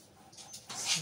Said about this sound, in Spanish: Oh, el perrito.